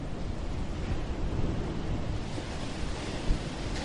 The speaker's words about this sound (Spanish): Y tengo, claro, el mar aquí al lado eh, golpeando el espigón. Entonces, claro, no sé si se puede escuchar, si podéis apreciar el, el ruido del golpe de las olas.